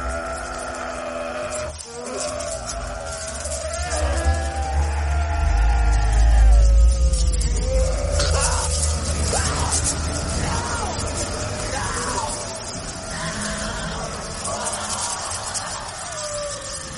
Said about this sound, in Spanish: Pues bien, mis queridos amigos, este sonido inolvidable es ni más ni menos que el, sonido em, con algún sampler de fondo, pero es el sonido de unos bebés recién nacidos llorando, invertido y doblada la velocidad.